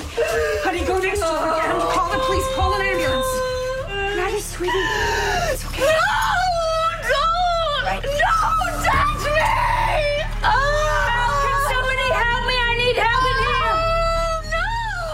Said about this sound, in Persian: اما اون یهو دچار حمله عصبی شد شروع کرد به داد و بیداد کردن و وسایل خونه رو پرت کردن